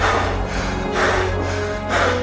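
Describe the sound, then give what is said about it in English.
Steady breathing with about three airy breaths in quick succession, each swelling and fading roughly once a second over a low constant hum, no talking. “Uh, here's yet more breathing.”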